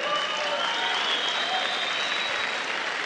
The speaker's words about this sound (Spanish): La mía era, un pasivo, pero ahora la convertí en activo. ¿Verdad? Es un aplauso para ella.